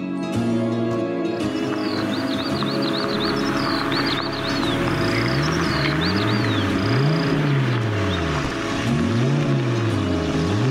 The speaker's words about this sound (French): Une voiture pénètre le cadre, bruyante et tape à l'œil. C'est un vieux modèle Jaguar, aux suspensions grinçantes. Les coups se tendent, des yeux sortent des portières, le véhicule clingue, expire, une porte s'ouvre